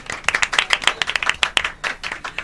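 An audience applauds a panelist on a show, with a brisk, uneven patter of many hands clapping at a steady, moderate loudness for a couple of seconds and no voices over it.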